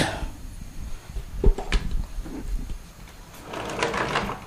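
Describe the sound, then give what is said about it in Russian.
Cabinet doors thump shut in two quick knocks while someone leaves a storeroom, followed by a small click of a light switch being turned off and some soft rustling and handling noise. “Обратная процедура закрывания дверей, выключения света.”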